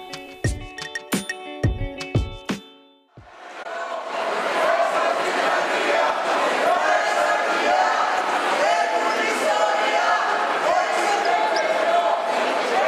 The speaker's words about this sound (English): You just heard voices from a protest in Athens, taking place during one of the RC21's conference tours in Exarchia a neighborhood known for its radical political activism and intellectual movement.